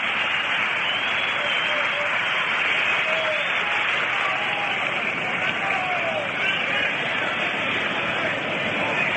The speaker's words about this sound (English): Standing in the ninth position, number 24, the pitcher, comes Early Wynn, getting a nice round of applause.